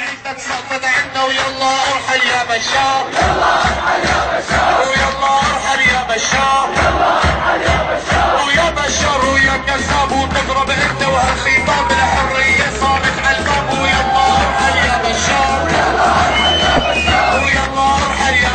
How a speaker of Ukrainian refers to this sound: Зараз до вашої уваги дабки періоду сирійських масових протестів, у якому рефреном звучить фраза Забирайся Башар, адресована президенту Башару Асаду.